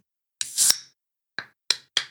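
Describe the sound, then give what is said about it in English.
The tab of a 16.9-ounce Liquid Death 'Berry It Alive' drink can cracks with a short, sharp burst and brief rasp but no fizz, as the tab breaks off without opening the can, followed by three quick metallic clicks. No one speaks. “It's a 16.9 ounce can.”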